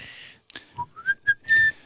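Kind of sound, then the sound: human body sound, person whistling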